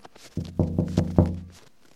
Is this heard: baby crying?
no